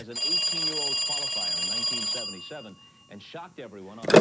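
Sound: telephone ringing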